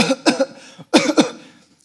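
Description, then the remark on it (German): A person coughs into a face mask, two quick clusters of harsh coughs with a brief pause between them. No one speaks. “hustet die jetzt hier voll, dann ist diese Maske unrein.”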